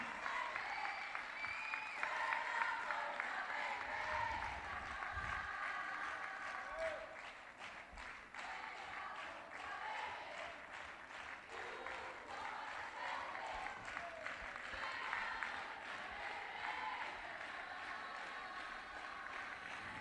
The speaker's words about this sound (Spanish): Terceiro premio do concurso de Hamburgas 2020 de Pontevedra. Tropa de Moncha Caralla. Aplausos.